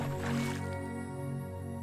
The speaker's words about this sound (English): Once you're far enough away, gallop with Timon until you get close to the muddy puddle then jump as high as you can and land in the oozy mud that splashes and splatters all over you.